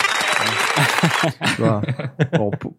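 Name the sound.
applause jingle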